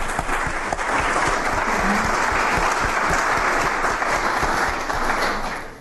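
A room full of people claps steadily, a dense sustained wash of hand claps that holds at a loud level for several seconds before starting to taper off at the end.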